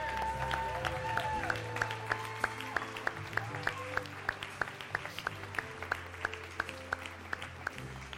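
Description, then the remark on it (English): Audience applause given as a round of applause for God: steady, rhythmic clapping in time, sharp regular claps roughly four per second, heard over sustained, humming musical tones throughout. “So, can we just give God one more round of applause?”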